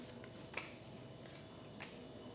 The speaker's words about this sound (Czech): Tahám ještě další karty. Partnerství.